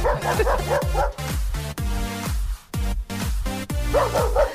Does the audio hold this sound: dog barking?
yes